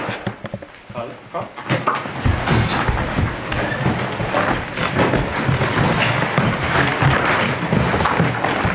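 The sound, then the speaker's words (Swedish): A horse in a leather harness fastened with metal pins starts being driven forward toward the snow, its steady hoof steps and shuffling, with jingling and creaking tack over a busy, continuous outdoor background after a brief quieter start. “Nu är han fast. Jag kör honom fram till till snön och så kan vi hoppa på sen.”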